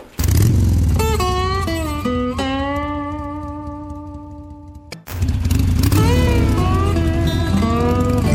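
A V-twin motorcycle engine revs loudly, climbing through several gears with rising harmonic pitch, cuts out briefly near the end, then roars back up again.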